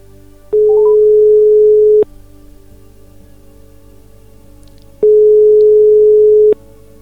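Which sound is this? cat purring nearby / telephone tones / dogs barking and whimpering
telephone tones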